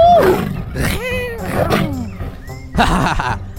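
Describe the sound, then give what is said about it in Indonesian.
A wild jungle cat roars and snarls in several loud, throaty bursts as it chases a rooster to prey on it, the calls sliding up and down in pitch with rough growling between them. “ada kucing hutan yang muncul dan ingin memangsanya.”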